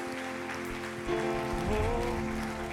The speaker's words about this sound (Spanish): Dale un aplauso fuerte al Señor hoy.